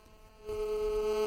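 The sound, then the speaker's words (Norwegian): A steady electronic telephone ringing tone on a call line starts partway in and holds unbroken to the end, moderately loud over faint background hiss. “Det ringer.”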